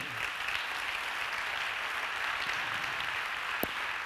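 An audience applauds the Lord steadily for about four seconds, a dense, even wash of many hands clapping with no voices over it, ending with one sharper clap near the close.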